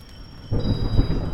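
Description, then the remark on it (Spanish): A deep rumble of thunder rolls in suddenly after a quiet moment, mixed with a steady wash of rain noise, fairly loud, with no voices. “Después de eso comenzó a llover.”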